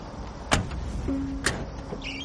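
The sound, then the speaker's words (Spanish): Two sharp car door thunks about a second apart over a low steady hum as Walter, Mike and Jesse step out of a car. “Mike y Jesse también bajan.”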